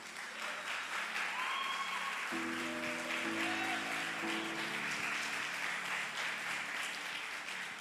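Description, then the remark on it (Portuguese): A church crowd applauds the name of Jesus loudly and steadily throughout, a dense wash of clapping that never breaks, while a sustained musical tone, like a keyboard chord, enters partway through underneath. “Você pode dar um beijo na tua Bíblia e aplaudir bem forte o nome de Jesus.”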